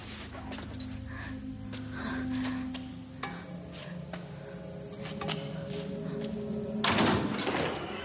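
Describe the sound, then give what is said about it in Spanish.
Several metal pipes, tripped over by someone, clatter to the floor in a loud, ringing crash with scattered clangs and thuds, and a sustained metallic hum lingers through the impacts before a final heavy jangle near the end. “De pronto tropieza con varios tubos de metal que caen al suelo formando un gran estruendo.”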